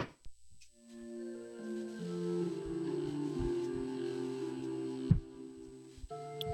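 A gentle church organ opens a song with soft, sustained chords that swell and shift slowly, notes layered and held, with a few faint low thumps underneath and no voices.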